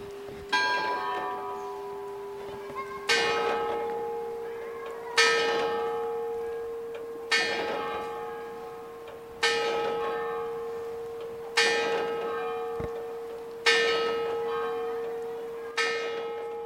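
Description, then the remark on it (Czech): The bell of the Pelhřimov astronomical clock in the Czech Republic strikes ten o'clock, with eight loud, resonant strokes heard evenly spaced about two seconds apart, each ringing out and fading into the next, with no voices. “Blíží se desátá hodina a my bychom měli pelhřimovský orloj slyšet odbíjet desetkrát a měli by se hýbat obě dvě figury, jak Herkules, tak Saturn.”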